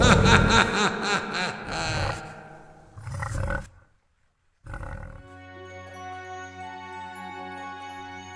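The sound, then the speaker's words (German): A herd of wild boar crossing a path at the edge of a forest grunts and squeals loudly in rough, rapid bursts, then falls silent before steady music begins. “Eine Rotte Schwarzkittel kreuzt ihren Weg.”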